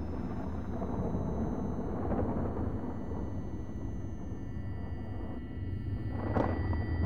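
A low, continuous rumble of thunder heralding a summer storm rolls steadily for several seconds, deep and broad, with a brief brighter crackle near the end; no one speaks.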